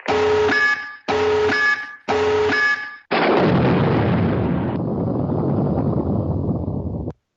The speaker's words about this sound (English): But I have a soundboard. We'll have some fun with it. Uh, oh, I got a good one for uh, hot take. Whenever. Yeah. Uh, Tactical nuke incoming.